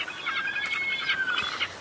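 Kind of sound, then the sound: bird, birds calling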